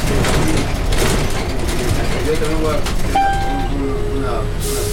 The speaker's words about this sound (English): We're on a bus that does not require stepping down in the back.